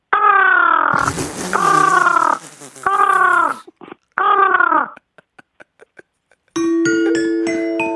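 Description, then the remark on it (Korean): An eight-year-old child's voice imitates a sleepy crying crow with four loud, drawn-out cawing cries, followed by a few faint clicks and then a bright ringing chime of bell tones. “슬리피 우는 까마귀 들어볼게요.”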